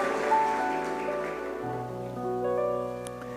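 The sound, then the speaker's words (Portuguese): An audience at a Portuguese-language church service applauds their king after a prayer, a dense patter of clapping over sustained keyboard chords, the clapping thinning out after about two seconds while the held notes continue. “Dá uma salva de palmas ao teu rei.”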